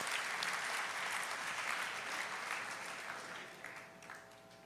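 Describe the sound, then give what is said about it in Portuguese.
An audience bursts into steady, dense applause for Jesus, many hands clapping together in a bright, sustained wash that gradually fades a little toward the end, with no voices standing out. “Meu Deus, uma salva de palmas para Jesus pela linda voz de vocês.”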